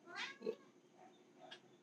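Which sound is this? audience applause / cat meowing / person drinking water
cat meowing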